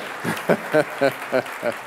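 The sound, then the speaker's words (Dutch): An audience applauds a man called up to give his testimony, a steady wash of clapping carrying a series of evenly spaced, rhythmic voiced bursts, like cheering in time, about five or six pulses. “Geef hem nog eens een applaus.”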